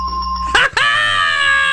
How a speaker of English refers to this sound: This is the sound from Star Trek, the original series from back in the 60s. This was the sound. Transporter? The transporter, yeah.